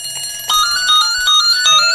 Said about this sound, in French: le téléphone, à mon avis, c'est celui-ci qui m'appelle.